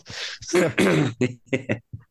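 A short fit of coughing: a few harsh, rough bursts in quick succession that taper into smaller, quieter coughs, with no talking.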